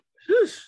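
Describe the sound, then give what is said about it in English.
A single short, fairly loud sneeze: a quick voiced intake rising into a breathy, hissing burst that fades within a fraction of a second, with no talking around it. “Oh, bless you.”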